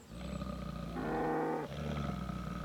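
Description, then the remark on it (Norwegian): A bear lets out a loud, deep roar in a farmyard in Nordmøre, Norway, on a spring evening, one sustained bellowing growl that swells in the middle and briefly breaks before rumbling on, with no talking. “Det er en bjørn ut på gardsplassen.”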